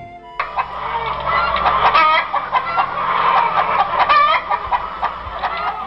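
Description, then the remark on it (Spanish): A plump hen by the side of a road clucks busily and continuously, fairly loud, with rapid overlapping squawky calls and no one speaking, like several fowl fussing. “Rueda que te rueda, tropezó con una gorda gallina que estaba al lado del camino.”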